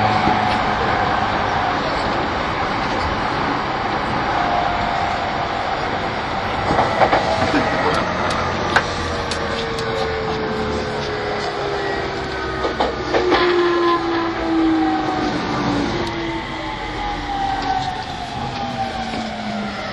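An E231 series Yamanote Line train running on the outer loop from Tokyo to Tokyo: a steady, loud rumble with electric motors whining in gliding tones that slowly fall in pitch, and sharp wheel clicks scattered throughout. Nobody speaks.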